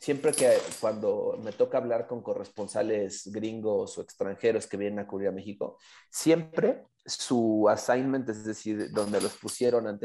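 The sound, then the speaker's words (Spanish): A dog scratches itself, its collar tags jingling in quick metallic bursts beneath a man talking steadily in the foreground. “ese es mi perro que se está rascando”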